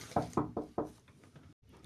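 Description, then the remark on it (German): The speaker's sister knocks four quick, evenly spaced times on a door, sharp, followed by quiet with faint background noise. “Meine Schwester hat gerade geklopft.”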